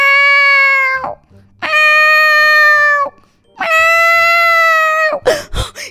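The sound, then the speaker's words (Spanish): A voice imitates a cat with three long, drawn-out meows, each held at a steady pitch and trailing off, with short pauses between them, followed by a brief breathy burst. “Oh, pues esa noche, cuando el sultán intentó dormir, los 2.222 gatos que estaban metidos en su casa empezaron a maullar.”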